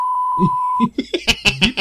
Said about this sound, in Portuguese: É. Bip, só pra não ter problema com, com, com